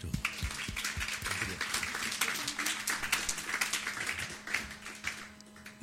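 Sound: audience applause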